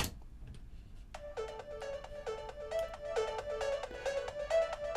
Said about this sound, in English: that ARP sound is so unique to … songs